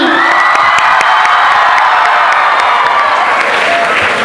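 A large crowd at an event with guest of honor Madhavan applauds and cheers loudly to welcome a gesture, dense clapping filling the whole stretch with high shouts and whoops rising above it, steady and sustained throughout.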